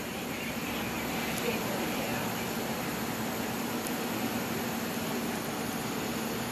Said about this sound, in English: That helicopter is flying back and forth.